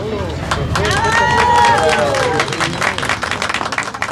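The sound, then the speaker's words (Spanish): Footsteps patter and scuffle as girls and boys run around at a ceremony, with high excited voices rising and falling over a steady hubbub of crowd chatter, fairly loud throughout. “En la ceremonia, niñas y niños corren alrededor.”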